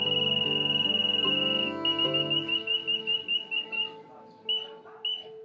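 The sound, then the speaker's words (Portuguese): A bird-call whistle used for hunting small birds, giving a sustained shrill trill that breaks into a quick series of pulsing, tweet-like chirps, imitating a bird, with no talking. “Mostrou o apito que usava para caçar o passarinho que virou o apelido dele.”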